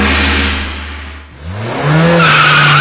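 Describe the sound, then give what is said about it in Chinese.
A car drifts, its engine roaring and then climbing in pitch as the revs rise, while the tires skid with a loud, sustained screech. There is no talking. “在这里温馨提示那些爱飙车的兄弟们注意了，汽车马力大不是你的错，但是在大马路上玩漂移就是你的不对了。”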